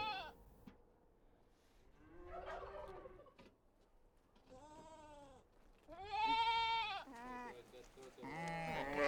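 Several sheep in a flock bleat in turn, each call a wavering, nasal cry, some overlapping, growing louder toward the end.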